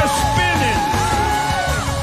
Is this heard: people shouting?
yes